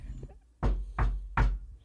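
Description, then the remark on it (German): Three evenly spaced knocks on a person's head, with a dull, hollow, wood-like thud. Fairly loud, each sharp and brief, with quiet gaps between and no talking. “Warte, ich klopf mal kurz.”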